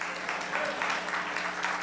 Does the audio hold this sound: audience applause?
yes